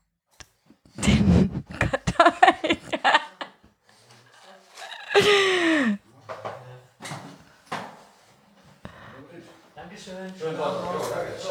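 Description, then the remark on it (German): A front door creaks on its hinges and shuts with a few sharp knocks and clatters, followed by quieter shuffling and handling noises, as the door is closed after a pizza delivery. “Hannes schließt die Tür und bringt das Essen ins Wohnzimmer.”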